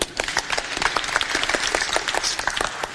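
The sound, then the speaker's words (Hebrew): A crowd applauds steadily for about three seconds, a dense, crackling wash of many hands clapping at once, fairly loud and even throughout with no voices rising above it. “ואתה תהיה עמד אה, מחיאות הכפיים שלנו, בסדר?”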